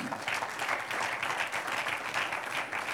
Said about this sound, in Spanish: Gracias a Dios por el Espíritu de Dios. Un aplauso al Señor.